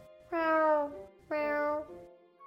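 Two drawn-out cat meows, each lasting over half a second with a slightly falling pitch, separated by a short pause. They are fairly loud, with no talking.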